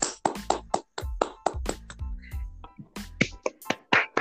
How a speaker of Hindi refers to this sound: तालियां तालियां